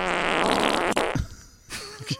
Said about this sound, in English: That's, and that's the whole reason I wanted to get a Tesla was to, to, so I can make it fart. Now you know you can only do it when you're in park, and that's, what fun is that?